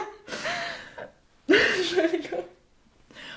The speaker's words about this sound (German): Sorry, ich muss aufstoßen, ich habe Pepsi getrunken.